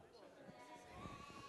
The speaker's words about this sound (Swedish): Inte? Jag tyckte jag hörde ett får. Hur låter de egentligen, fåren? Ja, så är det ja. Vi får lyssna noga. Hör ni när fåren? Det är ju en hel fårskock.